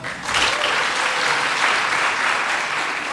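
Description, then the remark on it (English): An audience bursts into steady applause, clapping to show how many have iPhones in their pockets, many hands clapping at once in a dense, even wash that holds loud for the full few seconds without talk over it. “All right, how many people have iPhones in their pockets? Clap.”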